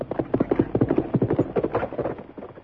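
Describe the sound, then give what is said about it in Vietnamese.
Rapid hoofbeats of a galloping horse pound in a steady, quick rhythm, growing fainter toward the end as the horse moves away. No voices are heard. “Nói xong nàng mỉm cười, giờ rồi quất ngựa chạy nhanh.”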